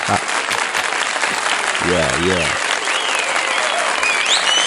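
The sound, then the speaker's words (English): Steady, dense audience applause fills the whole stretch, a loud continuous patter of many hands clapping, with a voice briefly calling out over it partway through. “Let's give some applause for Audacity Lead.”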